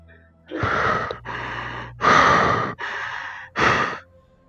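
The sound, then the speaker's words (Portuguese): A voice imitates someone's heavy breathing heard from behind a door: five loud, raspy breaths alternating in and out, each lasting about half a second to a second, steady with brief pauses. “Se escuta a respiração de alguém.”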